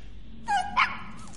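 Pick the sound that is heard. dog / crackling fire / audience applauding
dog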